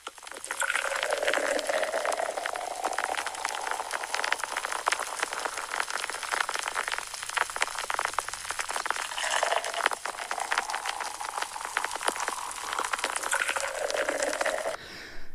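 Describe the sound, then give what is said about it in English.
Steady crackling fizz of beer foam, played as an app sound effect, with dense tiny popping bubbles and a faint liquid hiss, continuous for the whole stretch with no talking. “And beer foam.”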